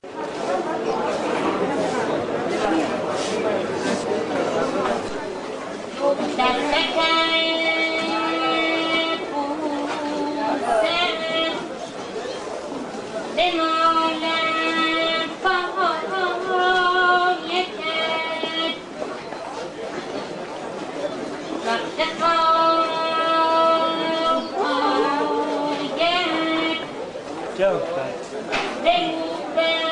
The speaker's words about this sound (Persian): صدای یه درویشی رو بشنوید که توی بازار تجریش داره قدم میزنه و یه بخشایی از مصنوی موسی و شبان رو میخونه